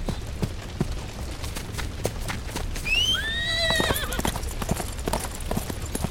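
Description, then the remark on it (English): Steady clip-clop of horse hooves on hard ground, with a loud, rising-and-falling horse whinny breaking out midway through, clear. “wait, that's my horse!”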